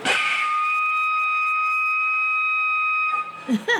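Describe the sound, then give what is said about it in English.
A walrus at Point Defiance Zoo whistling: one long, steady, high-pitched tone held for about three seconds at an even loudness, followed by a brief burst of voices at the end. “And that whistle, holy cow.”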